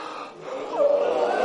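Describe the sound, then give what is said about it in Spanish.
A deliberate yawn made as part of a group stretching exercise: a breathy intake swells into a long, drawn-out voiced tone that dips in pitch, then holds steady and fairly loud until the end. “Y ahora, vivir el momento presente es, vamos a hacer cada uno un bostezo.”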